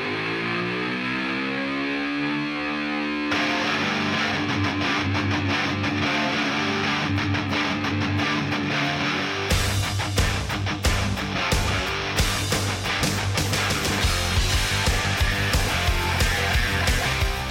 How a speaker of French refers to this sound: Pour se mettre dans l'ambiance du strip des 80s, on fait boum boom avec … et son ….